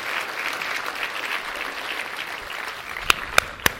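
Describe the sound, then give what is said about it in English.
An audience standing all over the building claps hands in steady, sustained applause, a dense patter of many overlapping claps, with a few sharper, louder individual claps standing out near the end. “Would you stand all over the building, clap your hands, receive the word of the Lord today?”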